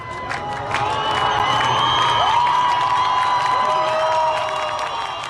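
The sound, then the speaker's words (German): A large crowd at a protest in Iran cheers and shouts steadily as women burn their headscarves, a dense roar of many voices with high whoops and cries rising above it, sustained at full loudness throughout. “Von Frauen, die sich aus Protest ihre Haare abschneiden, ihre Kopftücher verbrennen, unter dem Jubel von Massen.”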